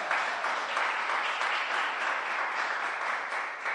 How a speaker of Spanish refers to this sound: Así que démosle un aplauso a él porque Dios lo usó.